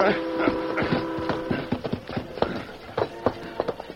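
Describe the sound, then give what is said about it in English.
A stallion gallops urgently along railroad tracks with quick, uneven hoofbeats, clattering loudly in a steady driving rhythm over a humming tonal background for about four seconds. “great-hearted stallion Silver seemed to sense that something was wrong and bent his efforts to greater speed”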